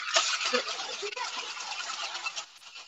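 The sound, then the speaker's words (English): Ice rattles hard inside a cocktail shaker as a drink is mixed, a dense, continuous clatter of cubes knocking against metal for a few seconds, fairly loud. “So uh, fill the ice, just shake it, and you can use a shaker like this, or I know a lot of people at home tend to have the um, cobbler shakers.”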